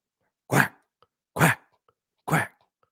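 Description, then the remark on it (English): A person voices three loud, nasal quacks imitating a duck in reference to the Oregon Ducks, evenly spaced about a second apart, each short and punchy with silence between. “Quack. They're only they're only twenty point dogs.”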